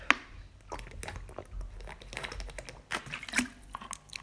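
Someone drinking water during a break, with soft wet gulps and swallowing noises mixed with small clicks and squishes at an uneven pace, and no talking.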